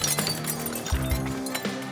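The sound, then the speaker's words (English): A saloon's mirrors, glasses and bottles shatter and clink in a rapid series of sharp crashes, several breaks tumbling over one another against a low steady hum. “Carrie aimed for anything that looked breakable shattering the saloon's mirrors, glasses, and bottles”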